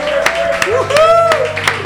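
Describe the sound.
A handful of scattered, close hand claps ring out over a few seconds, mixed with loud voices hooting and cheering rather than a full round of applause.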